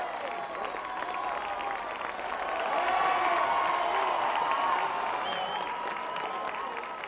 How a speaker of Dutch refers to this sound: En dan staat men in het parlement terecht en barst er een spontaan applaus los.